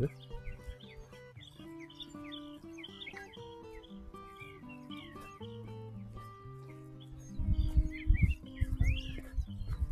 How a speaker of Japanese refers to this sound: カモがなんか泳いでますけど。鳥の声聞こえます